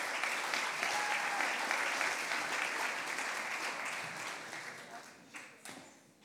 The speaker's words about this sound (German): Ja, genau, mal einen großen Applaus